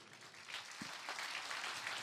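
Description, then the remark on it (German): An audience claps together in a steady, dense wash of average applause, given to calibrate an applause meter, that holds at an even, moderate level for about two seconds, with no voices over it. “Wir brauchen mal einen durchschnittlichen Applaus von euch, um das Applausometer einzustimmen.”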